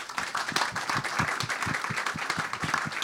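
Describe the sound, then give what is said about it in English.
An audience applauds a speaker steadily, many hands clapping in a dense, continuous patter that stays fairly loud and even for the whole stretch, with no talking over it. “if I could ask for a big round of applause for Carme”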